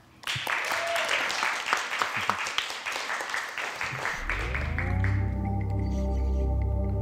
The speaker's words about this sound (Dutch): En mag ik alsjeblieft een warm applaus